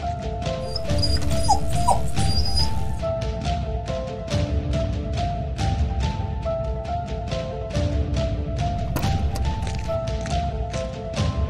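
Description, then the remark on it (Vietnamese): The family dog Tu Ma whimpers and yips in a run of short, high whines over a steady background hum, with quick tapping sounds scattered throughout. Moderately loud, with no voices. “Nhà có con chó mà cũng như không ấy Mẹ tính không nuôi con tu ma này nữa đâu”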